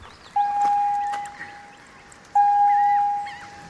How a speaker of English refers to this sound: It was almost like a car's seatbelt warning. You know, the ding, ding, ding. It was a foghorn that was going incessantly.